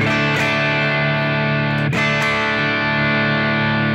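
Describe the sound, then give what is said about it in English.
A distorted electric guitar with its gain rolled all the way down, still giving fairly strong distortion, rings out a sustained chord with a gritty, crunchy edge, loud, with a couple of fresh strums partway through and no talking. “I still have some pretty good distortion.”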